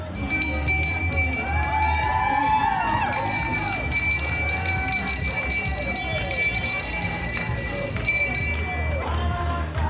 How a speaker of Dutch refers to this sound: Ook een echte schipper. Ja, ja. Eentje met een bel ik denk dat dat hem was.